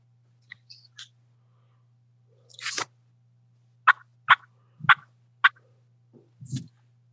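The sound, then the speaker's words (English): Sharp, high-pitched wild turkey alarm putts, four crisp clucks spaced about half a second apart, over a low steady hum, with a few softer scuffs and calls around them. “an alarm put a put is what they do when they're when they're spooked, not sure about something, don't like something, they're leaving”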